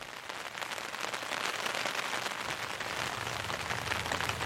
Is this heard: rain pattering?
yes